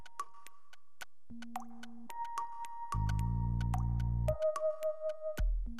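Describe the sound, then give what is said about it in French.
Liquid trickles into a laboratory burette being refilled for a titration, heard as a steady series of crisp drips and plops, with soft tonal ringing and a low humming swell partway through. No one speaks. “Il s'agit donc de re-remplir la burette et de réajuster son zéro.”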